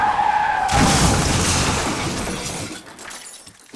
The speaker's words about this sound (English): Then he heard that jarring noise, halfway between a thump and a crunch, that unmistakable sound of a vehicle collision.